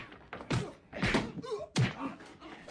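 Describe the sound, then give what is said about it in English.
A door is flung open with a heavy slam as four friends charge in, followed by a few more loud thuds and knocks in quick succession, with a brief creaking tone between them. “And with that, he flung the door open, and the four friends charged in.”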